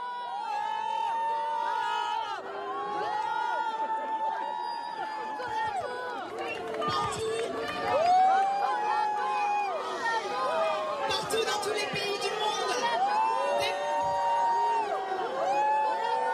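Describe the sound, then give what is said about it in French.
A large crowd at a demonstration in support of Iranian women whistles, shouts and jeers loudly at a speaker without pause, a dense roar of overlapping voices and shrill calls that swells and surges throughout. “Sauf qu'on n'a pas pu entendre grand-chose de son discours, tellement elle a été sifflée.”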